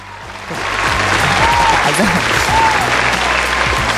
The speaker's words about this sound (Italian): Applausi!